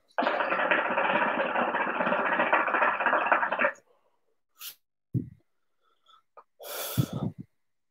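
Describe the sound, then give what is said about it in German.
A long, steady, airy draw on a pipe lasting several seconds, followed by a few short breathy puffs and soft exhaling bursts. No talking. “Erstmal züchtig von der Pfeife ganz kurz.”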